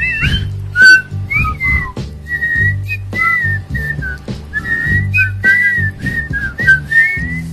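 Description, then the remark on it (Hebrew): A relaxed whistled melody of short and drawn-out notes over a steady band accompaniment with bass, guitar and drums, the whistling carrying the tune clearly on top. “שורק, טוב לו, הוא יושב מתחת לעץ במפרץ.”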